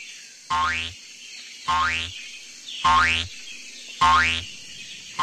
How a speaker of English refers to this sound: With huge bounces, into the clearing came a kangaroo.